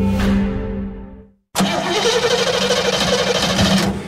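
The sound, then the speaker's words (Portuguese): A truck engine rumbles and sputters out into silence, then after a short pause cranks loudly back into a rough, straining roar, struggling to catch before stopping. “Vou ali ao Milênio ver se mete isto a andar. O quê? O caminhão?”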